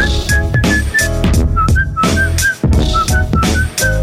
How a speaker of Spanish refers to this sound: Ese chiflí, ese chiflido